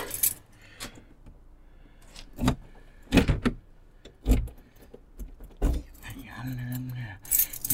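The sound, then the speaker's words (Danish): Keys jingle and clink in several short, bright bursts as they are stuffed into a pocket, with rustling between and a brief murmured voice near the end. “Jeg tager nøglerne i lommen.”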